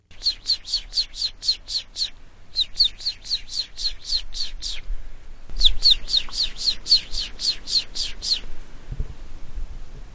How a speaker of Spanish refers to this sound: Ese es el gavilán de sierra. Hace mucho tiempo no se escuchaba el canto de esta ave rapaz.